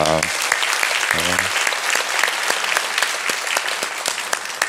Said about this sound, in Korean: 또 각 가정에서 우리 아, 교육부 미취학부터 시작해서 일찍 일어나서 부모님들과 함께 예배드리는 우리 자녀들을 위하여서도 우리 큰 박수로 격려합니다.